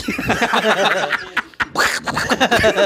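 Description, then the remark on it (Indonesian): A man's voice imitates the cartoon duck Donald Duck, squawking in a raspy, garbled quack-like stream of syllables for a few seconds, loud, with a brief pause midway. “gue Donald. Bebek.”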